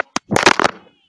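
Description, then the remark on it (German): A mobile phone falls: two sharp, quick knocks followed by a loud, jumbled clatter of impacts lasting about half a second, then fading to quiet. “Oh mein, mein Handy ist runtergefallen.”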